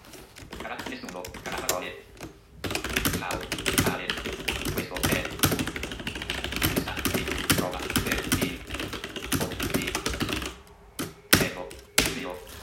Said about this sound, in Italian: Ora eh, possiamo iniziare la digitazione.